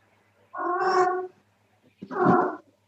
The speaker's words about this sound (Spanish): Puede sido el gato también, ¿no? Mi amor, ¿tú necesitas algo? Bueno, esa fue la gata. Sí.